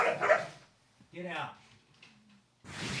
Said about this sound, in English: Sorry about that. The cat just cat just randomly attacked the dog.